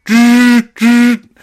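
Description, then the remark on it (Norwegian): A voice mimics a phone vibrating against the thigh of someone kneeling in a forest, with two loud, steady buzzing hums, each about half a second long, separated by a short pause, clear with nothing else around. “og så altså, hadde jeg jo sjølsagt ikke slått av vibrasjon på telefonen.”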